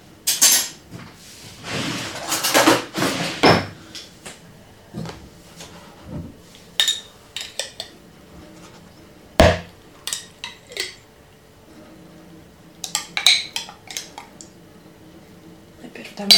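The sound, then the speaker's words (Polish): Chicken salad being stirred in a bowl, with a utensil scraping and clinking against the sides in quick irregular bursts, busiest at the start, then sparser taps and rustles, with faint talking in the background. “Teraz to znowu wymieszam z tym kurczakiem.”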